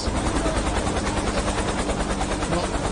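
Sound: helicopter rotor noise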